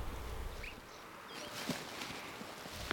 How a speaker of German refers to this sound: Ist das ein Pfeifen von einem Murmeltier? Ja.